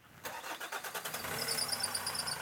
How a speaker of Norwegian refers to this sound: lyden av Thomas Andal som eh, kjørte ut på rypejakt før helga. Med en litt sånn hylete bil.